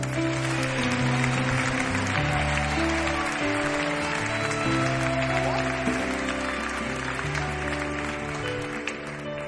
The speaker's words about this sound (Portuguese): Dê mais um forte aplauso a Jesus.